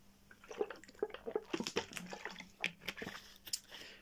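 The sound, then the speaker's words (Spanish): Someone drinks water, with a run of small wet sips, swallows and liquid clicks over about four seconds, no talking. “Un segundo, voy a tomar agua.”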